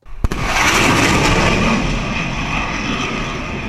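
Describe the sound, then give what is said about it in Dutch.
A sharp, booming crack from an F-18 jet breaking the sound barrier, followed by a loud, sustained roar of jet noise that rumbles on without pause. No voices. “Nou, dit is dus een, eigenlijk een F-18, maar die gaat wel door de geluidsbarrière. Dus dan hoor je even die knal.”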